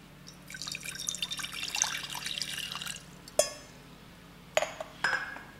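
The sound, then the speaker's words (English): Water pours in a steady, trickling stream for a couple of seconds as 150 grams of water is measured out, then stops, followed by a few sharp clinks and knocks of a container being set down. “So that means I'll need 150 grams of water. So let me go measure that.”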